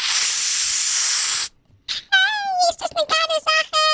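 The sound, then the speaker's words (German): A voice imitates a loud, steady hiss of a helium balloon being opened for about a second and a half, then breaks off into a high, squeaky, helium-like voice. “dass man irgendwann als Kind feststellt, wenn man Helium-Luftballon öffnet und macht,”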